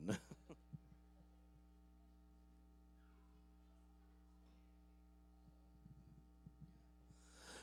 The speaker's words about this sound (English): There is a hum